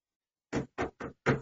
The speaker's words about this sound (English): that's me knocking on wood. It's never happened.